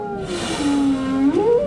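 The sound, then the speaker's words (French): A single long, tonal whale call that dips low, holds steady, then glides upward at the end, with harmonic overtones and a faint wash of background noise. “Excuse-moi, baleine, je faisais juste chatouiller ton bébé.”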